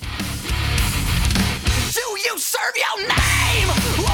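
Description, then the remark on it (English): A loud rock track plays with heavy low end, and midway a high, strained vocal wail cuts through for about a second, wavering and sustained before the full band crashes back in. “That's a heck of a scream That's right there.”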